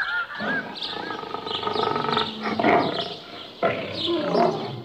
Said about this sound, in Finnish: Mutta kuka karjuisi täällä Suomessa yhtä lempeästi kuin leijona?